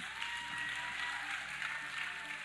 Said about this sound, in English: Can we give it up for everybody that is online today? Come on, get really loud.